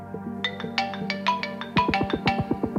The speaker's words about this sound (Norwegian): Men så ringer telefonen.